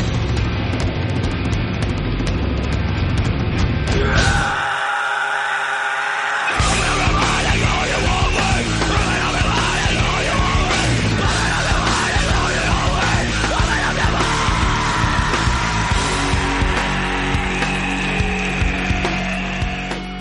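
A loud, dense heavy metal song with distorted guitars, pounding drums and shouted vocals, briefly thinning to a bass-less, filtered passage before the full band crashes back in.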